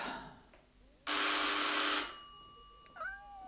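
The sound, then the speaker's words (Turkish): A home doorbell, rung by someone at the door, gives one loud, harsh buzz lasting about a second, then falls silent; a brief cat meow follows shortly after, with no talking. “Kapı bu. Biri bizim zilimizi çalıyor.”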